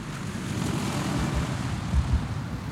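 A steady, loud droning roar of engines heard from inside an aircraft cabin in flight, carrying Norwegian paratroopers in green uniforms about to jump for the first time, with low rumbling pulses and no voices.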